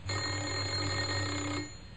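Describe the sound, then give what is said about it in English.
A man presses the doorbell of a house in Oxford; it rings in one steady, continuous burst lasting about a second and a half, then cuts off. It is fairly loud, with no talking around it. “He had a worried expression on his face as he walked up the few steps and pressed the doorbell.”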